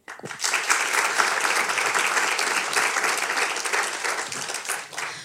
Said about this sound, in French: par applaudissement, qui a écouté les premiers